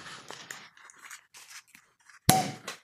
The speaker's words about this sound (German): So, ich bin jetzt soweit, der Korken wird abgemacht.